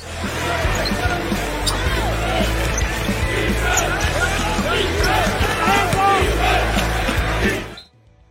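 A short jingle introducing a basketball segment, built from court sounds: a ball bouncing, sneakers squeaking and a noisy crowd, steady and loud for about eight seconds before cutting off abruptly.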